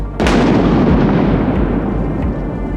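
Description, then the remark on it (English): A sudden, sharp crack of thunder as lightning strikes a tree beside a moving wagon in Salem during a downpour, then rolls on as a loud, deep rumble that slowly fades over the next couple of seconds. No voices are heard. “Before the wagon made it to the mortuary, a freak bolt of lightning struck a tree beside the wandering vehicle.”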